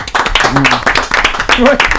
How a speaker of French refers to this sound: Bravo. Vous pouvez applaudir.